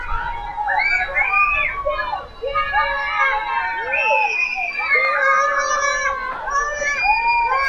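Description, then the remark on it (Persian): Children playing noisily in a street, with many high-pitched voices shouting, squealing and chattering over one another in a continuous, lively din that stays loud throughout. “خدایا چی کار کنم از دست اینا بچه ها بچه ها خواهش کردم ازتون نمیشه آروم تر بازی کنی؟”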